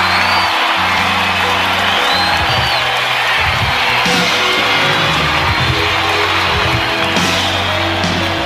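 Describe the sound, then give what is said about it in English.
A loud, sustained wall of crowd applause and cheering greets a singer on his first live stage appearance in a long time. Whoops and shrill whistles rise above the dense clapping, with a few bellowed shouts. “So I want you to put your hands together and give a big round of applause to Mr. ….”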